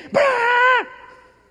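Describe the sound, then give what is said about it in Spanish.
A small female dog lets out one loud, drawn-out bark, a sustained whiny tone of about half a second that cuts off and fades with a short echo. No one speaks. “No, que es que la perrita, que la...”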